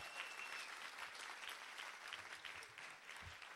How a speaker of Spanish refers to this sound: Si usted es feliz en Cristo, dé un aplauso fuerte. Si usted es un amargado, no aplauda.